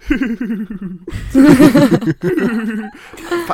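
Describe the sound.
A voice imitates an odd cackling laugh, a warbling, cooing, pigeon-like chortle in rhythmic bursts, fairly loud, lasting a few seconds.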